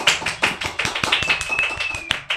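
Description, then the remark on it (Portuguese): A short burst of applause from a few people welcoming a guest, sharp overlapping claps in an uneven rhythm, with a thin high whistle running through the middle of it. No one speaks. “Uma salva de palmas!”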